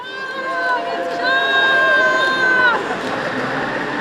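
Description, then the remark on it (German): A crowd cheers and whoops on the Bundesplatz in Bern on a cool October 2016 autumn day as people push a long line of post carts stacked with boxes of 120,000 signatures across the square, several sustained high-pitched shouts rising over a steady wash of chatter before settling into general crowd noise. “Da jubeln Menschen, sie stoßen in einer langen Reihe Postiwägeli über den Platz.”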